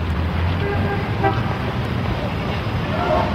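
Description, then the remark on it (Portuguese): Busy city traffic rumbles steadily, with car horns tooting and honking over the constant drone of engines, loud throughout. “Basta apanhar o trânsito na minha cidade.”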